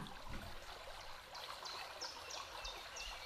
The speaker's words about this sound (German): Du spürst dieses Fließen und hörst es. Dieses sanfte Plätschern. Und du nimmst erst einmal wahr, was dieses Fließen und Plätschern mit dir macht.